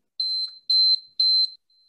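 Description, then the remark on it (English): A timer alarm goes off with three loud, evenly spaced electronic beeps, each a steady high-pitched tone lasting about a third of a second, with no voices. “it's not too bad it doesn't sound like any other timer so we know which one it is um, which is always nice”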